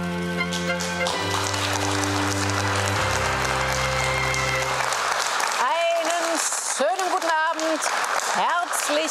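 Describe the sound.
A live audience at the Berliner Ensemble in Berlin applauds loudly and steadily throughout the opening of Das Literarische Quartett, a dense crackle of many clapping hands, with a few sustained music notes in the first half and a voice rising over the clapping near the end.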